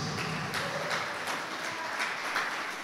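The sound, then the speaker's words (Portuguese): An audience claps together in a steady, rhythmic beat in praise of the Lord, a dense wash of many hands filling the room at an even volume, with no voices standing out. “Vamos aplaudir ao Senhor, porque a salvação é para todos.”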